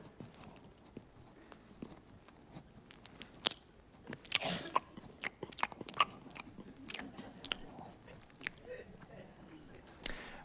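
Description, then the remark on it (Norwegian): Crunchy chewing of a sunflower seed, a run of irregular sharp crackles and bites over about ten seconds, quiet, with no talking. “Men vi sår det sånn, og så tygger vi det.”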